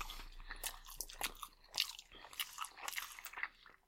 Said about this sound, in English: That sloppy, that sloppy rice sound. The loudest of all the foods we've eaten on Ooh Food.